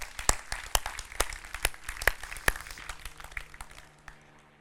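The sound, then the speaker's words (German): An audience at a Connect-Kirche church service breaks into applause for first-time churchgoers, many hands clapping in a dense, crackling patter with sharp individual claps standing out, then thinning and fading away near the end. “Deswegen von mir einen fetten Applaus, wenn du heute zum ersten Mal in einem Gottesdienst bist.”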